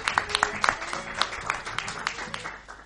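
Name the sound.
audience applause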